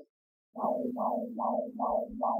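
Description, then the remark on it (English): A steady, rhythmic heartbeat sound effect used as the cue for the 'Birth It Up Baby' segment: five even pulses over a low sustained hum, fairly loud, with no voices. “All right, the sound of that heartbeat means it's time for this week's segment of Birth It Up Baby.”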